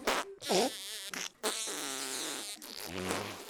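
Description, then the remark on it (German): A rapid string of loud fart sounds from toads in a balloon basket, several buzzy, sputtering blasts of varying pitch following one another almost without pause, with no talking. “Nach einer Stunde waren die ersten Kröten durch die Pupserei so erschöpft”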